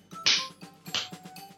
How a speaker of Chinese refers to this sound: 孩子们，如果有听到什么不吉祥的话，就在地上跺脚两下，像这样，